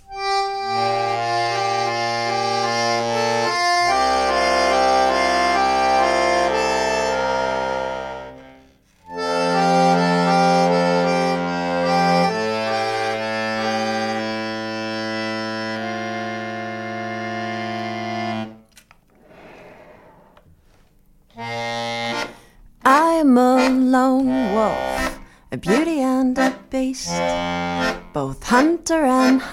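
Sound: song performance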